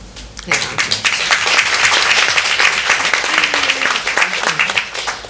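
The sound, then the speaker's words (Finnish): An audience breaks into sustained applause for everyone taking part, at an event about the Roosanauha cancer fundraising campaign, a dense wash of many hands clapping at a steady, loud level for several seconds, with a faint voice murmuring underneath. “vielä yksi puheenvuoro ja sitten kaikille aplodit.”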